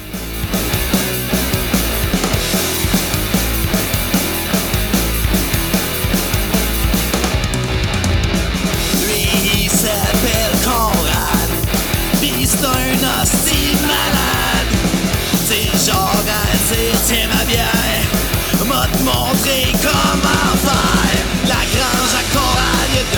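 Loud, fast punk rock with driving distorted guitars and pounding drums, a raw vocalist shouting over the dense, unrelenting wall of sound from start to finish.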